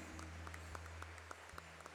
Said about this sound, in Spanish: Dale un fuerte, fuerte aplauso y dile gracias porque tú tienes el control de mi vida.